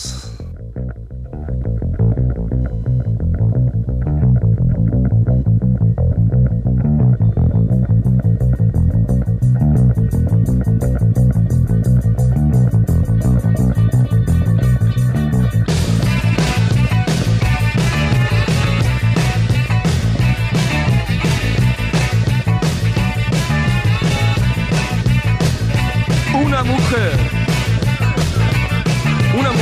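A rock song from an album plays loud with no talking, starting with a steady riff and building partway through as heavier drums and cymbals crash in, filling the sound with driving, distorted energy.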